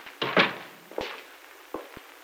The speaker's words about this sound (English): Close the door a minute, huh? Yeah, sure.